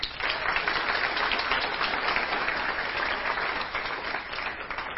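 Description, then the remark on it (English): An audience at a worship service applauds steadily for several seconds for those who led worship and made a video, a dense wash of many hands clapping at once, sustained and fairly loud without letting up. “So just give them a round of applause.”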